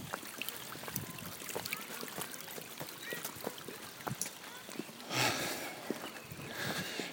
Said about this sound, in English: And you can hear this is all really old, like Roman stuff. And there's water running down the little canal.